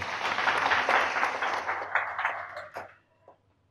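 A burst of group hand clapping, dense and fairly loud, holds steady for under three seconds, then thins out to a few scattered final claps before fading to quiet. The group claps as a participant is called to the front.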